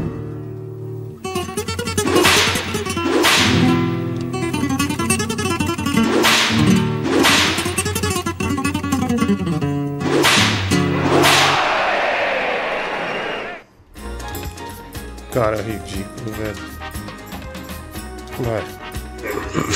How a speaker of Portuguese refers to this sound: O seu remédio é só um. O meu chicote no seu bumbum.